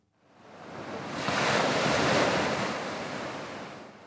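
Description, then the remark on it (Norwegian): Long, gentle ocean waves wash onto an exotic beach on the South China Sea in a broad, hissing surge that swells over a couple of seconds and slowly recedes. The sound is steady, with no voices. “Du hører bølgene som slår mot land.”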